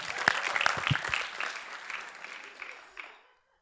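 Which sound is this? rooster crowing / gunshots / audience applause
audience applause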